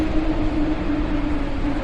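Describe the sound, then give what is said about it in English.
A high-speed train in China, carrying holidaymakers over the New Year holiday, with a steady, loud rumble and a constant low droning hum, holding an even level throughout with no voices. “Here in China, high speed trains are carrying holidaymakers to various destinations around the country.”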